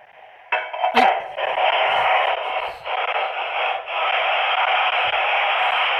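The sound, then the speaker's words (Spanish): A continuous, harsh grinding of glass against glass as a 380 mm diameter, 2 cm thick glass telescope mirror blank is ground, a loud gritty scraping that starts after a brief quiet moment, with a sharp knock near the start, and carries on steadily to the end. “es chemecar un vidrio de 380 milímetros de diámetro. Ah. es decir, es un espejo ya considerable”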